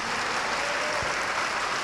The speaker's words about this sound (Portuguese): Então vamos usar as mãos para dar a melhor salva de palmas para a palavra de Deus.